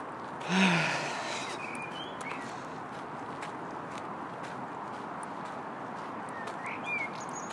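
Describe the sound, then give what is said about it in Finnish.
A few faint, scattered bird chirps ring out against a steady, rustling outdoor background on a forest path at the Helsinki–Vantaa border in Finland, with a brief soft breathy sound near the start and no talking. “ainakin linnut laulaa”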